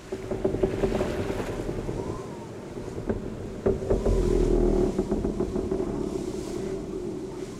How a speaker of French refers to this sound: Pourtant, dehors c'était la nuit. Dehors, c'était le vent. Dehors, c'était notre navire, cinglant vers Arkham.